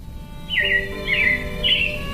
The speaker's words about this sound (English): Yeah, it looks like the robins are getting ready to celebrate Valentine's Day today.